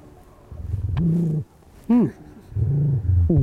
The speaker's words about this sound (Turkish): Bu böyle bak bu hem hırlar hem böyle bir şeyi var hırçınlığı var ama bu bir agresyon değil. Bu hırlama. Ya hoşuna gitmeyen bir yere mi dokunuyorum acaba?